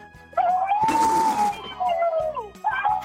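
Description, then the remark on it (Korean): A caller on Park Myung-soo's radio show imitates an elephant's trumpet: a loud, sustained, wavering squeal lasting about two seconds, raspy in the middle, followed by a brief second blast. “코끼리 소리 자신 있습니까?”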